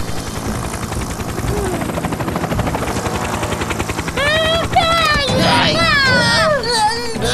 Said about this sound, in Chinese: 他们需要空中支援，哈哈！汤姆开着直升机来了。